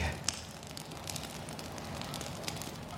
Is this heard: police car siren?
no